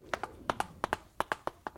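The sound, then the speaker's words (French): A cow's hooves trotting in a quick, steady clip-clop, the hollow knocks falling in close pairs about a dozen times, clear with nothing else around them. “je trotte et je t'apporte un navet.”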